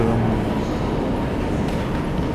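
A Paris metro train rumbles underground in a steady, loud, low roar with a faint metallic rattle, holding constant for a couple of seconds with no voices.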